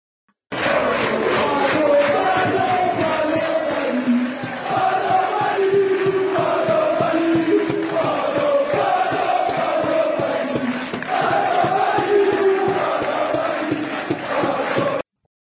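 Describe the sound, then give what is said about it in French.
A large football crowd chants in unison for about fifteen seconds, a loud, steady roar of many voices rising and falling in a repeated sung melody, with no break or individual speech. “petit un petit euh, extrait sonore et euh, je vais vous demander de, de, si vous savez à quoi ça correspond, à quel quel match pour le coup.”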